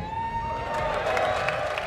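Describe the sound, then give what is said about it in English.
A large crowd cheers and whoops continuously in a festival tent, a dense, steady roar of many voices with a few higher shouts poking through, loud for the whole two seconds. “is the biggest crowd in the left field so far this year.”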